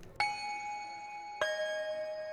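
A two-note electronic chime of an elevator arriving at a floor: a bright tone rings out, then a second, slightly lower tone follows about a second later, both sustaining cleanly with no talking.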